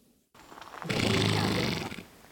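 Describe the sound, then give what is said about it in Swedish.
A breathy snort from Icelandic horses rumbles loudly for about a second, a rough blast of air like a horse blowing through its nostrils, followed by quieter breathy noise, during a riding outing for visually impaired riders in Brönnestad near Hodala castle and Finjasjön lake. “Och bland frustande hästar stod”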